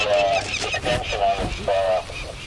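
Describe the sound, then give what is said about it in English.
Agitated parent Anatum falcons call over and over as a man descends to within about two meters of their nest to band the young birds: a rapid series of loud, harsh honking cries with brief gaps, sounding alarmed and insistent. “Mom and Dad are frantic as he gets closer to the nest.”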